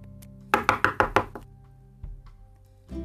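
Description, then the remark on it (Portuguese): A quick series of five firm knocks on a door, evenly spaced, followed by a couple of soft thuds and a low background hum. “No dia seguinte, a porta bateu.”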